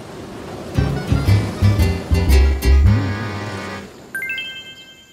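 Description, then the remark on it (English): Water sloshing and splashing with a continuous wash of waves, joined by a rhythmic tonal pulsing in the middle and a bright chiming sound near the end. “Rocking, bashing, water splashing.”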